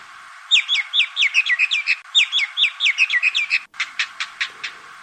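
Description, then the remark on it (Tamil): Indian myna calls: quick bursts of repeated, rising chirps, then a short run of sharper, clipped notes. The bird sounds clear, with no one talking. “எனவே இந்திய மைனா பறவை கட்டுப்படுத்தப்பட வேண்டும் என்ற தீவிர எண்ணம் உருவாக துவங்கியுள்ளது”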